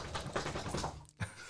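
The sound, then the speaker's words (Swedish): A dog named Dino shakes its ears: a rapid, rattling flutter of floppy ears and jingling for about a second, a brief pause, then a soft thump. “Ja, det var min hund Dino som ruskade på öronen.”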